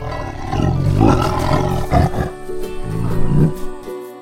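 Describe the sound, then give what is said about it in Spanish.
A deep, rumbling tiger roar fills the space, loud, rising in a couple of throaty surges over about four seconds with no voices present. “Sin embargo, la tranquilidad se vio interrumpida por un rugido aterrador que resonó en el aire.”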